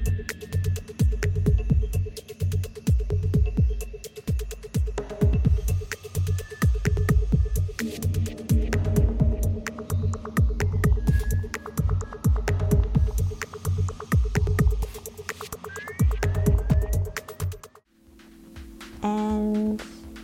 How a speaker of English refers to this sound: who's done a kind of uh, drum and bassy mix. So, yeah, really excited to share those tracks. I've got some snips here for you as well.